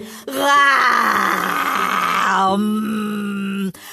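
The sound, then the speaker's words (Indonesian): A voice imitates tigers growling: one long, loud, rasping groan held for about three seconds at a steady low pitch, turning rougher in the middle before cutting off abruptly. “Jadi, ayahku melemparkan mereka masing-masing sepotong permen, tetapi para harimau itu hanya menggeram.”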